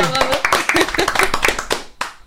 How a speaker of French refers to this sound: Ça fait pitié, hein, trois applaudissements.